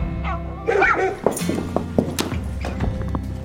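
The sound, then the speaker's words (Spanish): Kitty, a six-year-old female Golden Retriever guide dog, barks a few short, sharp times, with a soft thud and some faint background voices around the barks. “Ella es Kitty, una Golden Retriever, tiene seis años, es mi sexta perra guía.”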